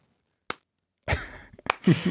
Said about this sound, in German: Hier, guck mal, warte, auf, warte mal, hinten bei dir in der Ecke klatscht, ah, hier, klatscht einer, hör zu.